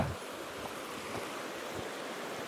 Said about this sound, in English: It's like it's just the sound of running water. I kind of think I want to also just like get it on my camera. Just like it's so soothing. Like legit so soothing.